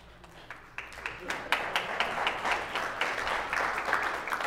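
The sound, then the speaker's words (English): Clapping that begins as a few scattered sharp claps, then swells within a couple of seconds into dense, steady applause from a group, holding at a moderate level until the end. “Yeah, I, am not even interested in clapping for the children.”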